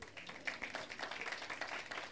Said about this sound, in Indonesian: Tepuk tangan untuk dirimu sendiri.